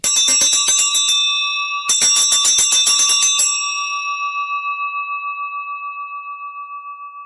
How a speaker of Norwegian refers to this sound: så var han som messingklokke som de sto og ringte med